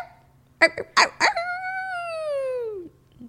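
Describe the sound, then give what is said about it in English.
A person imitates a dog, giving three quick yapping barks and then one long, drawn-out howl that slowly slides downward in pitch and fades out. Loud and without other talking. “And I just will say, like, if you wanted to do a dog audiobook, like I know one one boy who would listen to it.”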